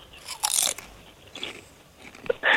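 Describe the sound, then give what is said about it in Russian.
Crunchy chewing, like someone biting into seashells: a few close, gritty crunches in irregular bursts, with louder snaps near the start and end, and no talking. “С каким хрустом ты будешь есть ну, ракушки?”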